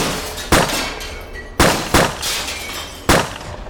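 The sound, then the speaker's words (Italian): Four sharp, loud gunshots ring out in irregular succession inside a kitchen as a family sits at dinner, two of them fired in quick pairing, each a sudden bang with a brief decaying tail. No voices are heard. “Proprio quando la famiglia inizia il consueto giro del piatto centrale per servirsi, si sentono due colpi in successione. E dopo questi primi due, altri cinque.”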